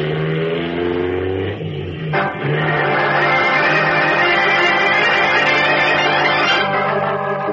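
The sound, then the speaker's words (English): Batman's powerful car engine roars loud as the accelerator is pressed to the floor, hurtling back over a twisting road, its pitch climbing steadily, with a brief dip partway through like a gear change before revving up again. “Pressing the accelerator down to the floor, Batman sends his powerful car hurtling back over the twisting road in pursuit of Big George Latimer.”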